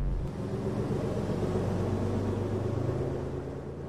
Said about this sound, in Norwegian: Uh, unnskyld, er dette 74-bussen? Nei, dette er bussen til helvete! Eh, men eh, går den til Jernbanetorget?